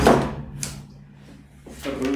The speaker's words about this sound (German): Jetzt ist uns das Mikro umgefallen. Naja, passiert.